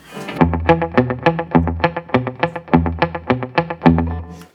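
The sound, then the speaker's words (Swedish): An electric guitar plays a steady run of picked notes through a reverb or delay effect set to long repeats, each note ringing out into a soft tail. Played alone, fairly loud, with no talking. “Men eh, eh, det som är snyggt med det här reverbet, eller delayet, det är när man drar på eh, längre studsar, då hör man lite mera hur det låter.”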